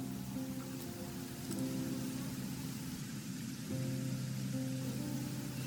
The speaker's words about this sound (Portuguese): Chovia lá fora.